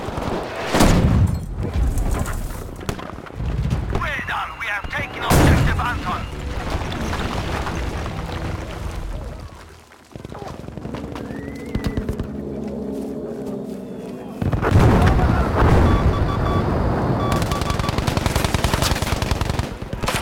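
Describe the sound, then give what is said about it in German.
A chaotic World War battle scene from a video game, with bursts of rapid gunfire and heavy booms, loud, layered over a dense rumble of combat with shouted voices mixed in. “Das heißt nicht, dass der Sound unbedingt realistisch ist. Das ist ja was anderes. Es ist eher so ein Hollywood-Weltkriegsrealismus.”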